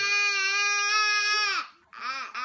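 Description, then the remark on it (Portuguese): A baby wails loudly in a long, sustained cry, breaks off with a short gasp, then launches into another strained cry, piercing with no other sounds around it. “Choro, tem choro.”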